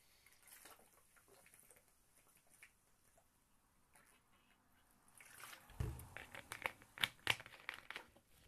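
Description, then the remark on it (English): After a quiet stretch, someone takes a sip of water: a soft thump, then a quick run of wet slurps, swallows and small crinkly clicks, with no talking. “I've just taken a sip of water”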